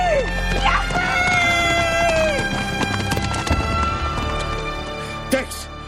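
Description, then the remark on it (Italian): Rapid, rhythmic hoofbeats of a galloping horse pound steadily throughout, mixed with dramatic background music and brief vocal shouts, with a sharper burst near the end. “Corri, Blanco! Corri veloce come il vento! Corri!”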